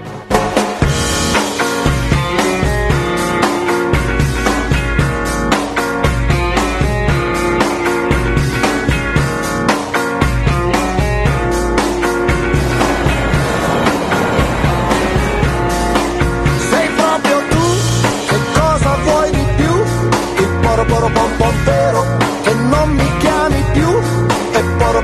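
A pop song plays loud and continuously on Radio Playtime, with a full band arrangement, steady driving beat and bright melodic layers, and no talking over it.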